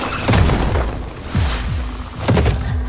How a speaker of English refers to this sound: Follow the sound of Lincoln's cannons.